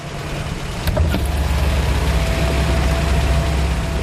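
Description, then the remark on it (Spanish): A car engine rumbles steadily as a car passes on a road, a low, continuous drone that swells slightly after the first second and holds at an even level, with no voices. “métete ya aquí, hombre, que te va a pillar un coche.”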